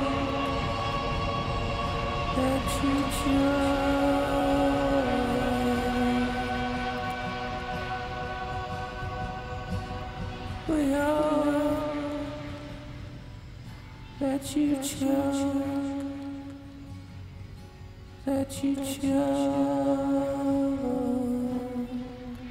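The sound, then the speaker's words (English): A heavy echo effect applied to the audio at the end of a recording: sustained ringing tones smear together and hang on, with a few brighter bursts that trail off into long washing tails, fairly loud throughout and with no clear speech. “Anyway, so I went a bit mental with the uh, the echo at the end, just because it's the end.”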